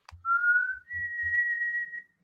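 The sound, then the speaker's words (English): Someone whistles two long, steady notes imitating the ominous whistle of a scary wolf, a slightly wavering tone and then a higher held one, clear, with a few soft low thumps underneath and no talking. “He whistles in a very scary way.”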